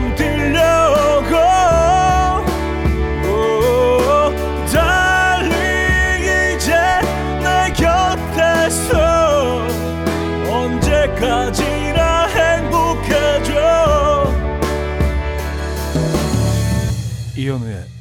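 A pop song plays on a radio music program, loud and continuous, with a sung vocal melody over full band backing of steady bass, drums and keyboards that carries through the whole stretch without pause.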